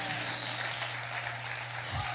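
An audience, urged by the speaker to clap better, gives steady applause, a dense even wash of clapping that holds at a constant loudness for about two seconds, with a low hum running underneath.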